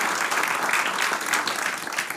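An audience in Rotterdam claps steadily to welcome a spoken word artist, a dense wash of many hands at a fairly even, full loudness throughout with no voices on top.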